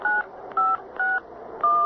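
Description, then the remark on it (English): Four touch-tone beeps of a phone number being dialed in a call to Dr. Burns, each a short steady dual-pitched tone separated by brief pauses, fairly loud with no voices. “This number doesn't answer.”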